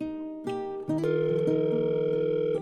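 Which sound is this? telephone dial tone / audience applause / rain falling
telephone dial tone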